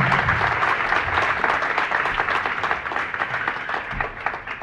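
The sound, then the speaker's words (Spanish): A church audience applauds the Lord during worship, steadily and loudly, a dense wash of many hands clapping at once that fills the space for several seconds without letting up. “Y si despertó al que está a un lado de usted con los aplausos, pídale una disculpa, por favor.”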